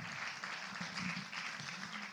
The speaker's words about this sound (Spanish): Le da un fuerte aplauso al Señor.